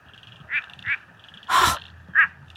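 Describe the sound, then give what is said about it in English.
Several short, nasal quacking frog calls, sounding much like a duck, spaced irregularly over a quiet forest background; one call is louder and broader, the others softer and clipped. “It sounds like a quacking duck, but this is a quacking frog.”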